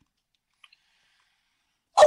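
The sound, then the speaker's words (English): One sharp, loud bark from a pet dog breaks a near-silent stretch right at the end, preceded only by a couple of faint clicks. No one speaks. “Um, as my dog barks in the well, that's um, it's a Malik Monk fan.”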